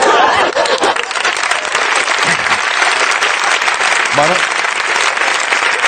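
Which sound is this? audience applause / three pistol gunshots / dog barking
audience applause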